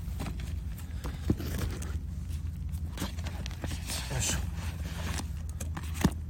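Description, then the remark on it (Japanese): Camera tripod legs folding shut after the camera has been taken off, as the gear is packed away, heard as a few sharp clicks and light scraping spaced out over steady outdoor background noise. “今三脚閉まってます”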